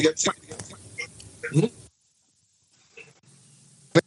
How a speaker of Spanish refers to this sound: escuchas cortado. que me dañe la transmisión.